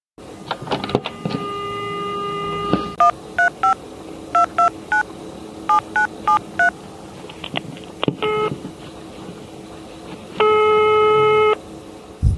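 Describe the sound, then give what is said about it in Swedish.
A steady dial tone, then a quick series of short telephone keypad beeps in two bursts as a call is placed to Opal Agency, followed by a longer ringing tone near the end. No one speaks. “Ja, ja men vi ringer henne.”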